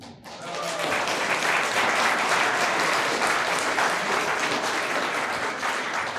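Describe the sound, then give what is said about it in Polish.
An audience breaks into sustained applause for a choir after its song, a dense, steady wash of many hands clapping that swells quickly after a brief quiet start and holds loud throughout. “Wielkie brawa dla Was.”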